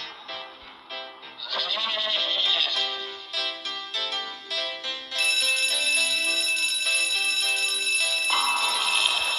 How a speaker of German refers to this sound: Ziegen.